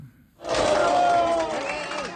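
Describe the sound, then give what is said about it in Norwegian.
Supporters of Bolivia's Socialist Party, including presidential candidate Luis Arce and his staff, erupt in loud, sustained cheering and shouting over the presidential election result, a dense wall of excited voices with some high whoops rising above the roar. “Sosialistpartiets presidentkandidat Louise Arce og hans medarbeidere jubler over resultatet av presidentvalget sist søndag.”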